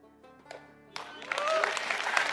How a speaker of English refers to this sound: The crowd gave Andy Savage a standing ovation.